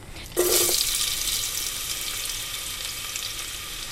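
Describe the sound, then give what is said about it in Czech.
A sudden loud sizzle as finely chopped onion hits hot oil in a pot to sauté, then a steady crackling hiss that continues with no talking. “A cibuli vlastně dám eh, do hrnce na olej trochu spěnit.”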